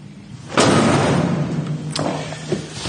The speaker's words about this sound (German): Doch dann holt der Gerichtsmediziner, der aus der ehemaligen DDR stammt, einen dicken Wälzer hervor und knallt ihn auf den Untersuchungstisch.